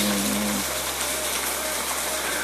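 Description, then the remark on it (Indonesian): Steady, soft hiss of light afternoon drizzle falling in Jakarta before Maghrib, a continuous wash of fine patter with a low hum beneath and a brief tonal drone at the start. “Cerita sore dengan rintik rintik hujan”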